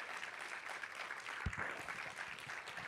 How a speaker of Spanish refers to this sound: Vamos, alguien que le dé un aplauso fuerte en esta mañana al Señor.